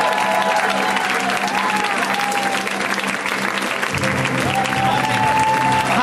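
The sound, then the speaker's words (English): Loud, sustained audience applause welcoming comedian Bobcat Goldthwait as the final comic of the show, with a dense wash of clapping that holds steady for several seconds and cheers and whoops rising through the crowd noise. “Uh, let's make it super super loud. Let's hear it right now for Mr.”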